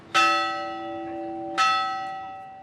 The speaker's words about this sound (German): Wer an der Glocke der kleinen Kapelle dreimal läutet, darf sich etwas wünschen, außerdem werden böse Geister vertrieben, so eine Sage.